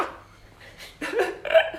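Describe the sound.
A person imitates a barking stray dog with a few short, rough, breathy vocal yaps in quick succession after a quiet start, rising in loudness toward the end.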